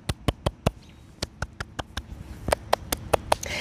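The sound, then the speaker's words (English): A single person claps their hands about fourteen times in a quick, slightly uneven rhythm, with a brief pause midway. The claps are sharp and moderately quiet, with no talking. “So, first of all, before I dive into the rest of this message, I want to give all of you who are doing the thing a hand clap.”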